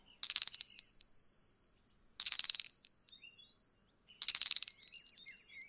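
A bright, metallic Reiki initiation bell is struck three times at steady two-second intervals, each clear ring shimmering and fading out before the next strike, fairly loud with no talking.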